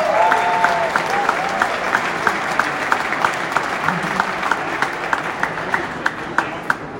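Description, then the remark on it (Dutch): Sustained applause from an audience at an event, a dense wash of many hands clapping with a few louder, sharper claps standing out near the end. “En ik wil natuurlijk dat jullie een heel hartelijk applaus geven voor”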